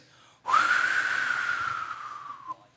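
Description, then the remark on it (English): A person imitates wind with a single breathy, whistling whoosh held steady for about two seconds, fairly loud, with no talking, as a sound effect for the word wind in a told story. “when you hear the word wind, you're going to go like this.”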